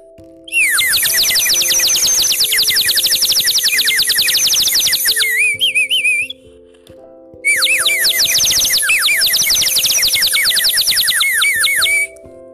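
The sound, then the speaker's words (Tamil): A small clay sparrow-shaped whistle toy warbles in two long, loud bursts of rapid, high-pitched bubbling trills, like birdsong, separated by a short pause, with no talking. “இதை கேட்கும் பொழுதே நம்மளுக்கு நம்மளை அறியாமலே ஒரு சந்தோஷம் வருது இல்லையா ஆமாங்க இது களிமண்ணால் செய்யப்பட்ட ஒரு சிறிய குருவி ஒரு சின்ன பொம்மை மாதிரி தான் இருக்குங்க விசில் சொல்லுவோம் இல்லையா அந்த மாதிரி தான் இருக்கும்”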